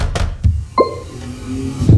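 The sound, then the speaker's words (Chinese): Several heavy knocks on a home's door in the middle of the night, about four dull, low-pitched thuds spaced irregularly, with a faint ringing after one of them. No voices. “齐教授，大半夜的这么敲门，你礼貌吗？”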